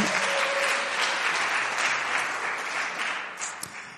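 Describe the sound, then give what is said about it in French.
Steady applause from a church audience after an announcement of a marriage, a dense wash of many hands clapping at an even, loud level throughout, easing off slightly toward the end with no voices standing out. “Il y en a quatre qui n'ont pas applaudi.”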